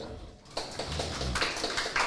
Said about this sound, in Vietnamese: xin một tràng vỗ tay ạ